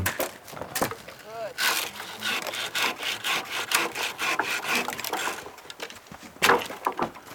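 A handsaw rasps through wood in steady back-and-forth strokes as protruding branches are sawn off tree trunks lying across a path, a rough, repetitive scraping that continues throughout with brief pauses between bursts of cutting.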